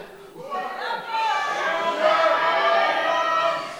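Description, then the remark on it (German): An audience at a live show shouts back together on cue in one loud, sustained roar that swells quickly and holds steady for a few seconds, full. “Also ihr, die schreien gleich und ihr schreit noch viel lauter zurück.”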